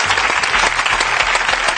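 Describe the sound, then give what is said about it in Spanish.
A steady burst of audience applause, dense overlapping hand claps forming a loud, continuous wash of noise with no voices standing out. “Venga, aplauda ya, aplauda ya.”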